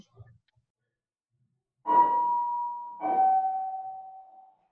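A house doorbell chimes a clear two-note ding-dong at about seven o'clock, the higher tone followed by a slightly lower one, each ringing out and fading. The chime sounds on its own, with no talking.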